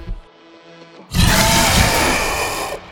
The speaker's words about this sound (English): And the beast, its lifeblood pour, pours out of it, and it lets out one last shriek.